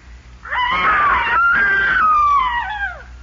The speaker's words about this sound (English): It's the same scream.